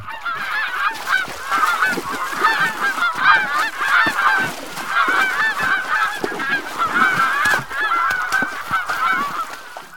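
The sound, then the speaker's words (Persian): A flock of geese honk continuously and loudly, many overlapping nasal calls crowding together without pause, with no voices heard. “دختر یعنی اینقدر کار رو سرت کوپه شده که نمیتونی به قاضا برسی و شپش سرشون رو بجویی ببین آدی حیوانکی قاضا چه جوری گریه میکنن”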